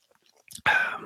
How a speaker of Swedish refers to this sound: Men juice, det är gott. Så att jag tar en liten klunk här först.